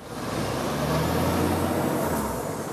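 City road traffic in Grenland passing in a continuous, fairly loud wash, with a low engine rumble and broad tire hiss that stay steady throughout. No one speaks.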